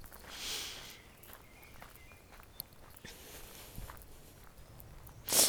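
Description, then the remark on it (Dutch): Footsteps of a person walking on a street outdoors in nice weather, a steady series of soft steps over low ambient noise, with a brief louder rustle near the end and no one talking. “Ah, dus nou ja, ik, ehm, ik loop eens even verder.”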